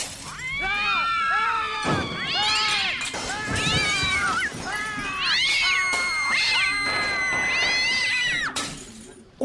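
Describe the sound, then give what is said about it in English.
A cat brought to work on Take Your Cat to Work Day meows loudly and insistently, about half a dozen drawn-out, wavering cries in quick succession, with no one talking. “June 21st is Take Your Cat to Work Day. Everybody say hi to Mr. Meow Meow.”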